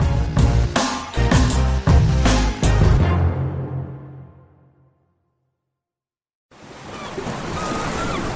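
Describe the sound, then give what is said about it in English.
Rhythmic music fades to a brief silence, then a steady, fairly loud wash of ocean surf rolls in for the last couple of seconds, a continuous hiss of breaking waves with no voices. “Ah, the beach it's not just for screensavers and daydreams anymore.”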